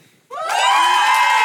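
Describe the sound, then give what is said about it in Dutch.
A loud burst of cheering from a crowd of supporters erupts suddenly, with many voices shouting and screaming together in sustained, dense excitement. “Mogen we toch nog even de supporters van Riyad Bari horen?”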